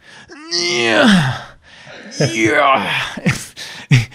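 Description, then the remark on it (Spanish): A voice imitates a loud, straining grunt of someone lifting a heavy dumbbell: a long rising-and-falling vocal strain followed by a few shorter forced bursts, prominent. “Eh, no eres un tenista profesional, no tienes que gritar tanto para levantar una pesa o no estás en el servicio haciendo tus necesidades.”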